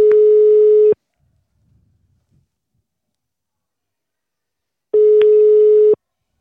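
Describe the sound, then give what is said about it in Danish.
Two loud, steady telephone busy-signal beeps, each about a second long, separated by several seconds of near silence. No voices. “Det kan også være, at han er blevet optaget.”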